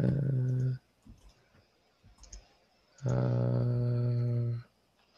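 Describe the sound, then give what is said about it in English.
A few scattered keyboard key taps, slow and hesitant, as someone hunts for the keys to type Thai on a keyboard without Thai letters, sit between two long drawn-out vocal hums. “Uh, I don't have a Thai keyboard, so I have to find the keys.”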